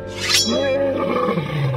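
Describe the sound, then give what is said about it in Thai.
A tiger roars once, loud, a deep rumbling growl that swells and trails off over almost two seconds with no one speaking. “แต่แล้วเมื่อเสือโครงพากระต่ายออกไปเที่ยวจนเหนื่อย แล้วก็รู้สึกหิวมาก”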